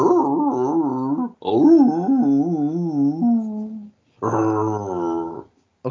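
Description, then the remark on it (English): A dog, Scoob, looking at a computer playing a noise, makes drawn-out, wavering growl-whine vocalizations in three bursts, the pitch rising and falling like it's grumbling or talking back, with short pauses between. “probably some dog's probably thinking, oh, you, what are you swearing at me for?”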